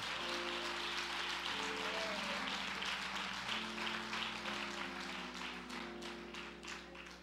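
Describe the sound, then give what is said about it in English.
An audience at a worship service claps their hands together steadily for Jesus, the broad reverberant burst of applause sustained throughout over a low sustained organ-like hum. “Clap those hands for Jesus if you can.”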